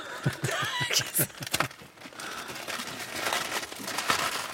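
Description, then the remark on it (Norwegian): Stiff, brown old tape tearing off a package: a quick series of sharp crackling rips, then a longer, steadier scratchy peel with no one talking. “ser deg gammel, så teipen er blitt helt sånn stiv og, ja, og brun.”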